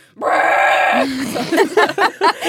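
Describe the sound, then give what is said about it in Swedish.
A woman imitates her own long, loud, cow-like bellowing moan while in labour, one sustained strained note, followed by a few choppy bursts of talking. “Så här, alltså- råmande kor.”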